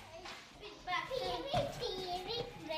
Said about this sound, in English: Now, anyone who's ever visited a preschool knows how excited and loud children can be